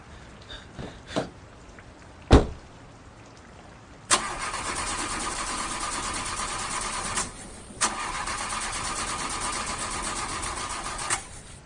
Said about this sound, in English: Oh, my engine.